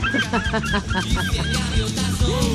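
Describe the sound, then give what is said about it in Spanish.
Seagulls cry and squawk loudly in a dense, overlapping chorus, with harsh repeated calls layered on top of each other throughout. “yo solo puedo decir, la gaviota vuela, que vuela la gaviota, pobrecita.”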